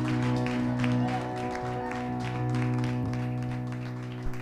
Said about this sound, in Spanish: Amén y amén y amén. Pueblo, dale un fuerte aplauso al Rey de Reyes. Amén.